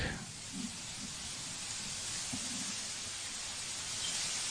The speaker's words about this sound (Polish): Czerwona trawa w wietrze. No naprawdę Ciekawe są te dźwięki.